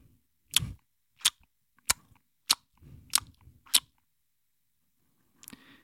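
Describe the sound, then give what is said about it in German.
An elderly Italian woman makes wet lip-smacking noises at a baby at a hotel entrance in a courtyard passage: a series of sharp smacks in a steady rhythm, about six in quick succession, then a pause and one softer smack at the end. “Ich drehe mich um, da steht hinter mir so ein italienisches Ömmerken und schmatzt das Baby an.”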